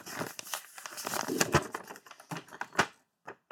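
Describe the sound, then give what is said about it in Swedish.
A sheet of paper being handed to someone rustles and crinkles, a run of quick, dry, irregular scrapes and crackles with no talking, trailing off into a couple of soft final rustles. “Uh, eh, nu ska du få ett papper”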